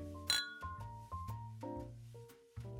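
beer glasses clinking

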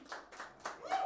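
applause

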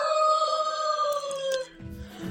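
rooster crowing

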